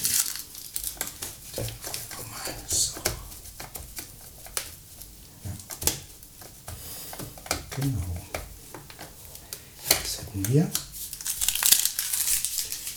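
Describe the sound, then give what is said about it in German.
Loud crinkling and crumpling of paper in rapid, irregular bursts as the paper is taken away, with a voice briefly speaking in between the rustles. “So, jetzt nochmal das Papier weg.”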